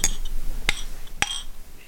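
Glasses clink together in a toast, three sharp bright chimes spaced about half a second apart, each with a short ringing tail, clear with no talking.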